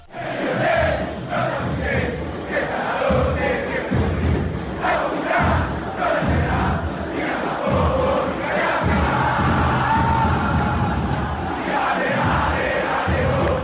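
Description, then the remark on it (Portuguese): A large crowd of Boca Juniors supporters chants loudly in unison in the typical Libertadores atmosphere, rhythmic voices blending into a dense, sustained roar with accented beats and occasional thuds throughout. “Como essa da torcida do Boca Juniors?”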